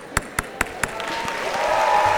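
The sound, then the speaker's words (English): Four sharp, evenly spaced gavel bangs ring out in quick succession, then a crowd's applause and murmur swell up and fill the rest of the moment. “This is the sound of a gavel.”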